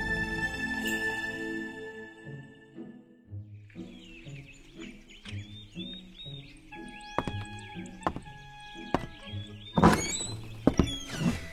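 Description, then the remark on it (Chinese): In the morning, a door creaks open in a series of squeaky, whining groans, with soft thuds and knocks mixed in, ending in a louder cluster of bumps; no one speaks. “早上被吱呀一声弄醒了，我费力地睁着朦胧睡眼，看到一个高瘦的剪影站在一室阳光中。”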